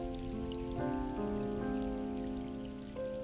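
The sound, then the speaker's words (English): Steady rain patters in a continuous soft hiss, mixed with sustained, gently shifting musical chords held underneath; no voices. “谷雨时节，听故乡的雨”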